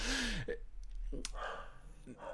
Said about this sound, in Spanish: Incluso, bueno, ahora, como no voy a cortar, escucharéis hasta un perro ladrar de fondo que, que lo tengo por aquí cerca